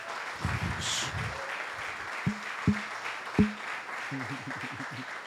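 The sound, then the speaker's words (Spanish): A church audience applauds the word of God during a sermon; the applause fills the whole stretch as a dense, steady wash of clapping, punctuated by a few sharper, louder claps, with some voices mixed in underneath. “Dale un aplauso a la palabra.”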